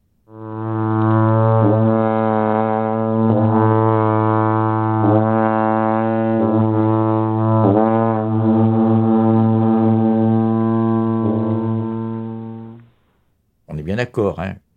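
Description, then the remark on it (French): A long mountain horn blows one deep, brassy drone for about twelve seconds, rich and steady with slight wavers in tone, then stops and a brief voice follows. “C'est pas hasard si vous trouvez au Tibet, en Suisse, ces longues trompes comme ça.”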